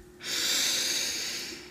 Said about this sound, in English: So take a nice deep breath in.